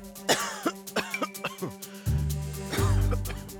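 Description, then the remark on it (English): A man coughs several times in quick, sharp bursts, followed by a lower, rougher throat-clearing rumble, fairly loud with no talking. “The papers and the public called him the coughing major.”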